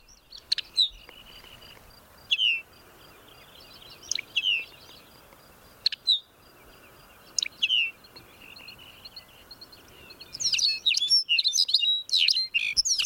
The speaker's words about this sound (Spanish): ¡Ay, pero qué, musical musical, Amador! Sí, muy, muy bonito, muy sonoro, un poquito metálico. ¿Eh? En este caso es un pequeño pajarillo y en este caso es un pajarillo un poquito raro. Es un pájaro que se está viendo ahora en, la zona de Cabo Peñas.